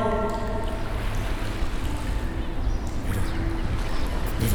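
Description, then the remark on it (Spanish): Steady rush of sea waves with the ambience of a sailing boat on the water, a continuous, fairly loud wash over a low rumble, with no talking. “Ve el mar que he dibujado.”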